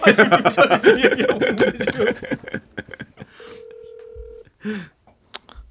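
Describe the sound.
Voices and a chuckle give way to a few quick dialing beeps, then a single steady ringback tone hums for about a second as an outgoing phone call, placed live during the broadcast to the head of Global Monitor, connects.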